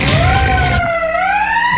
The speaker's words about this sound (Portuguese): Cadê a sirene, gordinho?